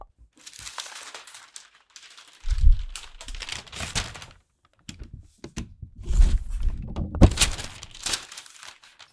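Scissors snip and slide through thin, rustling black chiffon-like fabric, cutting two sleeves out of a pattern. Soft crinkling and crisp cutting sounds come in uneven bursts with brief pauses between them; no one speaks.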